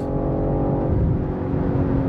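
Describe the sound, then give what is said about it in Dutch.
A powerful car engine roars steadily and loud, its deep rumble climbing as the vehicle accelerates, with no voices over it. “En dan gekoppeld aan zo'n potente motor. Dit gaat zo af.”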